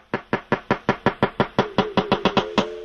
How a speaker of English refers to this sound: this is the sound of a male walrus courting females. That gong like sound to my mind is just